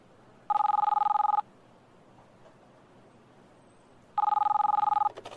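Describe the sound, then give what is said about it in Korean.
A phone line rings on an outgoing call made in Hong Kong: two rapid, warbling mid-pitched ring bursts, each about a second long with a pause between, sounding over a steady low hum of traffic-like noise. “철수를 끝낸 최 PD는 어디론가 전화를 걸었다”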